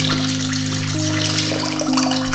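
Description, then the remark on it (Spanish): Tap water pours steadily into a cooking pot as someone fills it for cooking, a continuous rushing splash whose hollow ringing tone climbs in pitch as the pot fills. No voices are heard. “Estoy llenando una olla para cocinar.”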